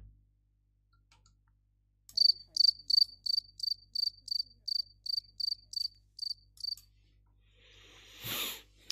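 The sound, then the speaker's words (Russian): A cricket chirps in a steady, evenly spaced series of about a dozen shrill, loud pulses, with no talking, followed by a brief hiss of noise at the end. “Хорошо, давайте сверчки.”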